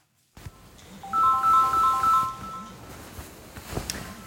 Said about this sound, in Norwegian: Klokka halv ni. Legevaktstelefonen ringer.